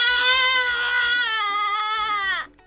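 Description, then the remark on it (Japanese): A single sustained, strained vocal scream of frustration, given as a vocal imitation of the feeling of frustration. A loud drawn-out "aaah" held for over two seconds with a rough, harmonic-rich tone before cutting off abruptly. “あーめっちゃ悔しい待って絶対痛かったよね今のね悔しさをじゃあ擬音で発表します”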